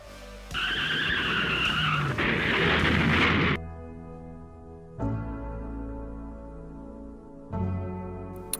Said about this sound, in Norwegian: Bilen krasjer.